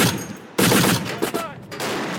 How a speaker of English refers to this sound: This exercise is designed to accustom Ukrainian forces to the use of Western weapons. This is an American 50 caliber machine gun firing Italian bullets.